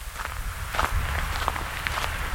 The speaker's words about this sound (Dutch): We lopen met grote passen naar de overkant van de weg, naar een akker vol met bloemkolen.